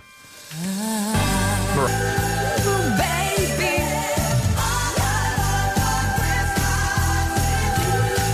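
A bright, upbeat Christmas pop song plays loud and close, kicking in after a short rising intro with a steady thumping beat, layered melody and sustained harmonies, and no talking over it.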